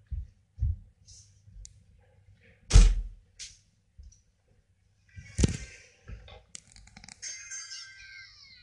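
A door is pushed shut with a heavy thunk, surrounded by scattered clicks, a couple of low bumps and a brief scraping rustle, with no one speaking.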